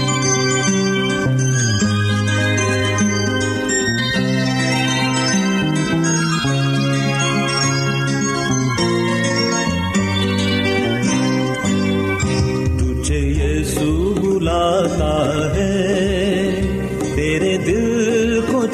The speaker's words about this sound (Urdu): آئیے اب خدا مند کی تعریف کے لیے ایک اور خوبصورت روحانی گیت سنتے ہیں